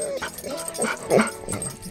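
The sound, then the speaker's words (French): A dog whimpers and lets out a few short, high yips in quick succession, moderately loud, with no other sounds around it. “J'étais en retard pour ton enterrement, mais j'ai tout de suite trouvé ton chien, couché dans les herbes hautes.”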